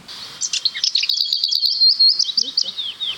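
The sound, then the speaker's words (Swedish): The song of a lesser whitethroat, a small grey warbler, plays from a phone app: a short soft warble followed by a fast, dry rattling trill on one pitch, lasting a few seconds, clear with no talking. “Det här är en ärtsångare.”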